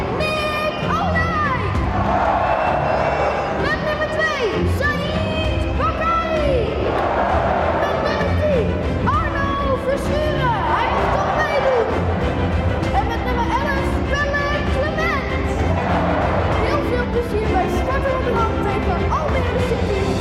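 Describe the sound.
A large stadium crowd roars and cheers continuously for about twenty seconds, with many overlapping shouting voices, rising whoops and clapping blended into a loud, steady wall of sound.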